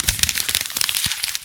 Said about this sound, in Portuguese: Isso é o barulho da pauta sendo rasgada.